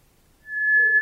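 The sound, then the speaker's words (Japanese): A White's thrush gives a thin, eerie whistling note: one long, steady, pure tone that starts after a brief silence, clear, with a fainter lower tone joining near the end. “種を明かせばこれは鳥の声しかもおそらく繁殖期だけに聞かれる恋の歌なのですなんだとがっかりするでしょうか”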